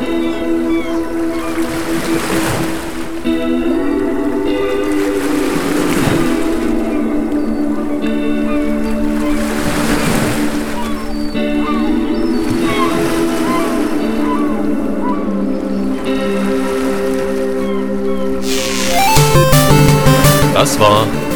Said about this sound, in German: Aber als Belohnung blenden wir euch jetzt noch ähm, kurz zwei Minuten Wellenrauschen und Möwengezwitscher ein, so ein bisschen zum Abwärmen.